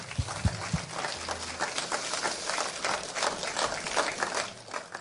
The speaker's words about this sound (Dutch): Maar eigenlijk vind ik dat God het ook wel verdient, toch? Geef hem even een groot applaus.